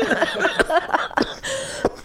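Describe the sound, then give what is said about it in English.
A few sharp coughs break out, three short bursts spaced through a couple of seconds, with voiced throat noise and breathing between them. “oh, we're coughing. sorry horribly. for the coughing.”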